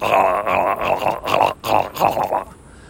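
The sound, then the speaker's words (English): A voice imitates a man's harsh, guttural grunting that hisses and gurgles like an espresso machine, in a string of rough bursts over about two and a half seconds before fading out, loud. “speaking to this person about his guttural sounds, which I learned the best way to describe them is the sound of an espresso machine because there's an espresso machine in our room and that's what he was sounding like was a fucking espresso machine.”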